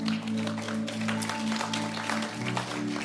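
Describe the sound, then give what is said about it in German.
Dense, steady applause from a church audience for the people who repeated a prayer, many hands clapping at once for about three seconds, with a sustained low musical chord humming underneath. “Lasst uns mal diesen Personen, die heute dieses Gebet im Herzen nachgesprochen haben, einen dicken Applaus geben.”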